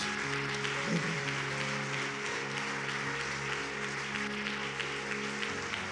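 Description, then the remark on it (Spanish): A church audience applauds to God for a family, a dense wash of many hands clapping at once that holds an even loudness throughout, with a low sustained tone humming underneath. “Amada iglesia, ¿le puedes dar un aplauso a Dios por esta familia?”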